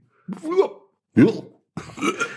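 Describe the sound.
A voice imitates an anxious gulp three times: throaty, burp-like vocal bursts separated by short pauses, each a quick low swallow-groan, with the last one longer and breathier.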